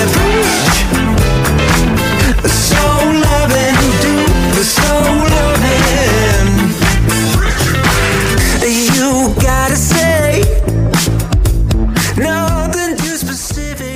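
A loud, full pop song plays continuously, with a steady beat, layered instruments and what sounds like a sung vocal line riding on top, close and prominent throughout.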